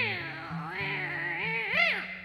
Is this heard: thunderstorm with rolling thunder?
no